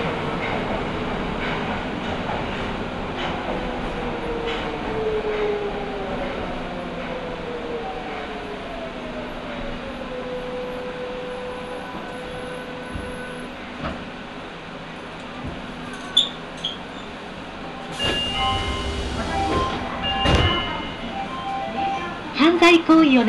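A Nagoya Municipal Subway Higashiyama Line train, on the Takabata to Fujigaoka run, rumbles steadily through a tunnel between stations, with rising and falling motor whine, rhythmic clatter of wheels over rail joints, and occasional sharp clanks and a brief hiss near the end.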